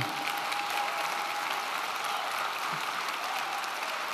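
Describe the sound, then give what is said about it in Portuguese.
An audience applauds Jesus in a steady, dense, even wash of many hands clapping at once. It holds at a constant level throughout, with no voices standing out. “É com Ele, pode aplaudir, Ele é digno.”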